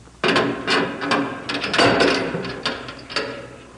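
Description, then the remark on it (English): A heavy prison cell door is unlocked and swung open: a run of metallic clanks and ratcheting scrapes, several sharp knocks spread over a few seconds, with no one talking. “Well, open the door, Warden.”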